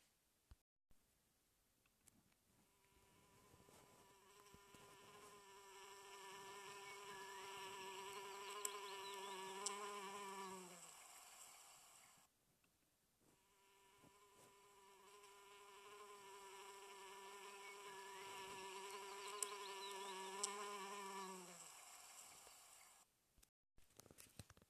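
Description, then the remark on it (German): A bee's buzzing drones steadily, swelling louder and then fading away, twice in a row with a short gap between, with no voices. “Bist du bereit, mit der kleinen Biene zu schweben? Los geht's, beweg dich wie eine kleine Biene.”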